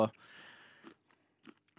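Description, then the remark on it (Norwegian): Chewing of crunchy dried banana, with a few short crisp bites and mouth sounds spaced out over a quiet background, after a brief burst of voice at the start. “Problemet med tørka banan er at det smaker mer tørka og mindre banan”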